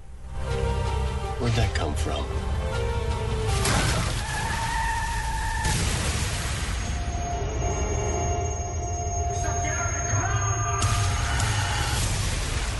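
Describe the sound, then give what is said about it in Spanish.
A car brakes hard and its tires skid with long, wavering high-pitched squeals over a loud rumbling roar, broken by a few sharp bursts of noise, lasting throughout: the crash that opens the film Olympus Has Fallen (Objetivo Operación Olimpo), an accident involving the car carrying the President of the United States. “Pues ese, ese sonido de la frenada corresponde al accidente con el que empieza esta película y es un accidente en el que va el presidente de los Estados Unidos, la esposa, la primera dama, muere”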